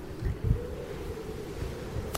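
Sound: wind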